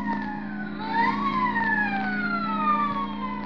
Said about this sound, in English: The nightclubs close up one by one, but now and then the police whistle and the prowl car siren serenade the sleeper.